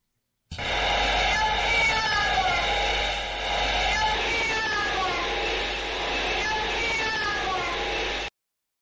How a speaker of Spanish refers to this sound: Vamos a volver a escuchar este, esta psicofonía.